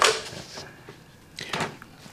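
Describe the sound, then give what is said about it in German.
A telephone receiver is lifted off its cradle: a sharp plastic clatter right at the start, then a second, softer rattle of handling a moment later, with no voices. “So, sehen Sie, und jetzt nehme ich ab.”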